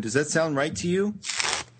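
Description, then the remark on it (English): A person asks a short question, then a brief, crisp riffle of tarot cards being shuffled in the background follows, a single papery burst lasting under half a second. “I hear those cards shuffling.”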